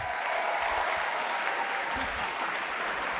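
Steady audience applause welcoming the man who wrote the songs for the musical, a dense, continuous patter of many hands clapping at an even, fairly loud level throughout, with no voices standing out.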